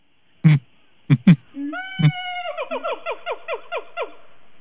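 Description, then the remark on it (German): Excited gibbons give a few sharp clucks, then a quick rhythmic run of short, squeaky, falling calls, clear with no talking. “Und wie oft bei Erregen produzieren sie manchmal so kleine Gluckse hm.”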